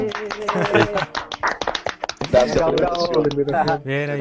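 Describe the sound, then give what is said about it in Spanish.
A short burst of clapping, quick irregular claps from a few people welcoming guests from Virtua Fest, organizers of the first online festival in Chile, on Espacio Nerd, mixed in under voices talking and exclaiming over the top. “Un aplauso para ustedes, chiquillos, gracias por venir.”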